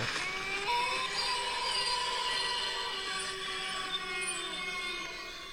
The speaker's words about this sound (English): Those are spooky sounds. okay. It's just a man wailing into the night. Still terrifying.